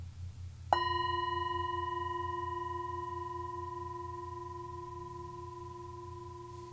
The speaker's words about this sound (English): So wherever you are out there, sitting in your chair, or you can do it standing start by listening to the sound of the singing bowl.